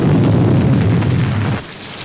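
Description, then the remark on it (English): A heavy, booming explosion on a mountain in a rain-soaked puppet scene roars and rumbles, with huge, soggy chunks of rock cascading and crackling, tumbling debris for about a second and a half, then cuts down to a softer, steady wash. No one speaks. “Big blammo on the mountain huge, soggy chunks of rock cascading all over the place.”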